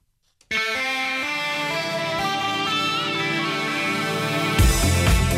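A short burst of bright, effects-heavy electronic music with layered sustained tones and a heavier, louder section near the end: the half-hour station jingle of IDC Radio, 106.2 FM, with no voices.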